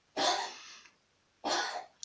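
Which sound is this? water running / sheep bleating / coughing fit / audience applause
coughing fit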